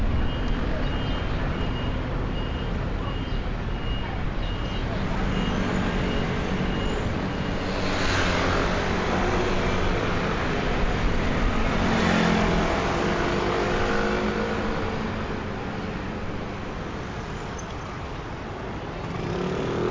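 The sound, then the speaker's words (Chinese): A bus turns a corner amid steady roadway traffic, its engine a low continuous rumble with a few swells in loudness and faint tonal beeping mixed into the traffic noise. “好，哎，我们听到了这个前面是有公车转弯的声音，然后有听到呃比较长的车声，这个这个慢慢的从呃那个方位哈，就是从左到右这样子过去”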